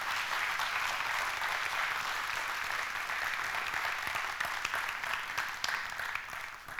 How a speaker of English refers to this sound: So, thank you to them. Give, uh, give them a round of applause, would you? Yeah.